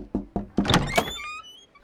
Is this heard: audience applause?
no